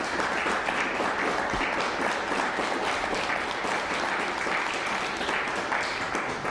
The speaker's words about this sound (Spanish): Un fuerte aplauso a Colombia.